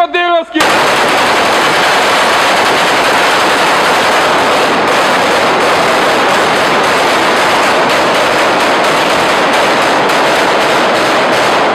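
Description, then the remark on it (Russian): A brief voice opens, then loud, relentless machine gun fire in battle in the terminal of Donetsk airport takes over, filmed on an ordinary phone, rapid cracking bursts blurring into a dense, harsh roar that continues unbroken for over ten seconds. “Снимал на обычный телефон бои в терминале ДАП впоследствии отдав флешку документалистам, благодаря чему теперь каждый может увидеть ад вживую.”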